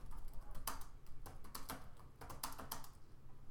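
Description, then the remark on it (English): Rapid, uneven keystrokes clatter on a computer keyboard, a steady run of sharp clicks with brief pauses between bursts, over a low background hum; someone searching online for information. “You can hear the keyboard tapping.”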